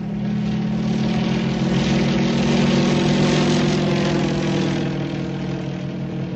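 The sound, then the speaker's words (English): A propeller airplane flying overhead drones loudly and steadily throughout, its low engine hum and buzzing airscrew constant, swelling slightly in the middle, with no voices. “In the air.”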